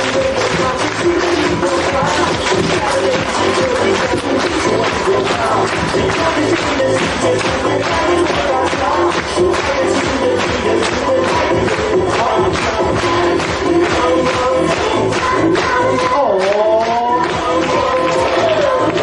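A large audience of course students, standing, claps loudly and steadily for the whole stretch to welcome their teacher onto the stage, a dense, fast patter of hands, with shouts and whoops of cheering rising over it and some voices calling out.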